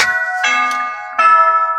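A phone's hourly Bible-passage alert chime plays clear, in Danville, California: bright, bell-like electronic tones that ring out, fade slightly, then strike again with a second sustained note. No one speaks.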